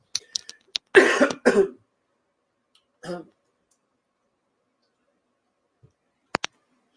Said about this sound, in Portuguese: Pessoal, desculpa, eu tenho que tossir porque a água só não foi suficiente. Só um segundo.